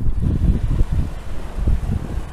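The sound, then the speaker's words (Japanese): Strong wind buffets the microphone in low, rumbling gusts while waves wash in at the shoreline of a local sea, recorded sitting at the water's edge, a continuous blustery roar with no voices. “はい波打ち際に座ってます”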